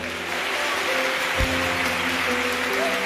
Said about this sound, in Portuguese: pode aplaudir o Senhor?